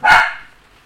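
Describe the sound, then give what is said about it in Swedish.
A single sharp dog bark, loud, with a brief ringing tail as it fades into quiet room tone. No one speaks. “102 avsnitt med hans skällande har det blivit.”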